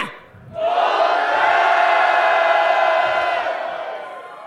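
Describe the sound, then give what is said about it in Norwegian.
A live crowd bursts into a loud, sustained roar of cheering and shouting right on cue after a count of one, two, three, holding strong for several seconds before easing off slightly at the end. “gi et lite ekstra brøl til RB Sporten”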